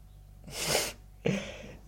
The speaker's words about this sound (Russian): И я, и, и я подумал, что люди, которые громко чихают, или как-то необычно чихают. Мне кажется, их не слушали в детстве.